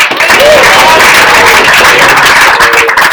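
Steady, dense applause from a crowd for the winner of a cricket club's Players Award, a loud continuous patter of many hands clapping with faint voices mixed underneath.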